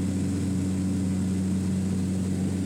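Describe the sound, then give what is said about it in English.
A small airplane engine drones steadily and loudly in flight as the plane is leveled out and flies straight again, a constant low hum with a rough, buzzing propeller tone and no breaks or other sounds. “was able to level the plane out, and he finally got it flying straight again.”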